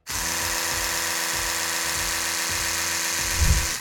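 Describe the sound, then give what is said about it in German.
A rotating-oscillating electric toothbrush is switched on and buzzes steadily, a continuous motorized whir with a slight pulsing rhythm and a brief heavier surge near the end, with no voices. “Und wenn man diese Zahnbürste jetzt mal anmacht,”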